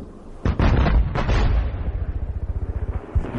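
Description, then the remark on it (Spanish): Heavy artillery explosions boom out during the German offensive known as the Kaiser's Battle, heard about 11 kilometres from the front: a couple of loud blasts followed by a rapid rumbling series of thuds that fade into a fluttering, echoing roll. No voices are heard. “De repente, seis o siete fuertes explosiones rompieron el silencio.”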